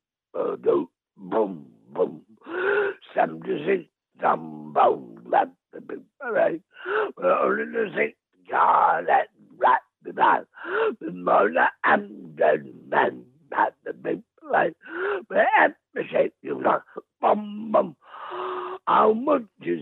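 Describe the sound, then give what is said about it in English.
A voice imitates a dog's bark in short, punchy bursts, mixed in with continuous sing-song vocalizing that fills the whole stretch at a steady, fairly loud level. “that dog in the window. Woof woof.”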